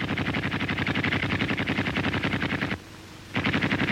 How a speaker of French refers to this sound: les villageois entendent les tirs et disent nos canons.